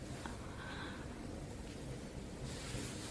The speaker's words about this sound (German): Und dann eben dieses Rascheln. So, na genau. So. Das Rascheln macht gar nichts, finde ich